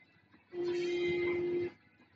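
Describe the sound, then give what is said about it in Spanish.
A single long, loud car horn blast, sounded at a vehicle that will not let the car pass, held steady for over a second, rising abruptly out of quiet street background noise and then cutting off. “escúchala cómo se pelea con un vehículo que no la deja pasar.”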